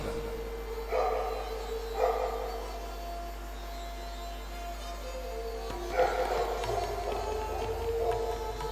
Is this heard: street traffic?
no